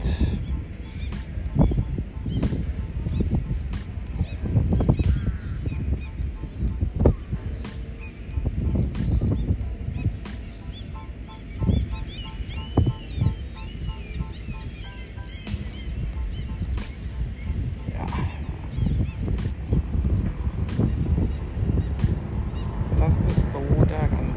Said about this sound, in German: Ja, hier sind noch viele Möwen. Die kann man anders erwarten am Wasser und an der Insel.